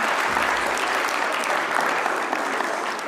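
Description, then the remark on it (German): A crowd applauds steadily, a dense wash of many hands clapping at an even, fairly loud level throughout, with no voices standing out. “Okay, vielen Dank, dicken Applaus.”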